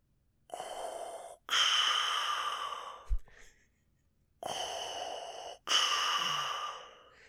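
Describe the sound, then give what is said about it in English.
A person imitates deep, heavy breathing: two long, loud breath cycles, each a rasping inhale followed by a breathy exhale, with a short pause between them. “We hear his deep breathing. It sounded like this.”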